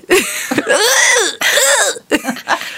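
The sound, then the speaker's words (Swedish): A voice imitates the small strained, wheezing hisses of someone whose head is stuck in sliding doors: three raspy, breathy bursts with a tight, squeezed tone, loud, no words spoken. “och så kommer personalen framrusande när de hör mina små liksom, väs och bara, men gud!”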